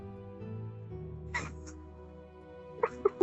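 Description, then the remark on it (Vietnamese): A person imitates a cat, with a few short, squeaky vocal mews bunched near the end after a low, steady background hum and a brief rustle. “đúng là gì nữa là tiếng mèo kêu”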